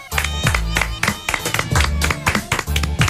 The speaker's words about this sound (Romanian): doamnelor și domnilor, aplauze.